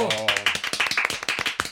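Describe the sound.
A brief burst of clapping, a rapid run of sharp, even claps from what sounds like a few hands, with a short tonal voice sound at the very start.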